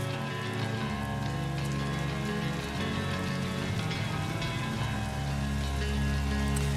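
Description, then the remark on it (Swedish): A steady hiss of rain, part of the music of a song rather than real rain, runs throughout, layered over sustained, droning musical tones at an even, moderate loudness with no voices. “Nu blir det, blir det dåligt väder också. Nu regnar skiten bort.”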